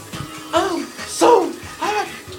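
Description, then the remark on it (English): Steady hiss of shower water running throughout, partly masked by a voice singing K-pop in short rising and falling phrases. “I even started performing K pop concerts in my shower.”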